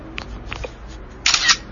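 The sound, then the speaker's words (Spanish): A camera shutter click plays as a screenshot of a whole web page is taken: a bright, crisp burst of high-pitched mechanical clatter lasting about a quarter second, following a few faint, soft taps. “Una captura de pantalla.”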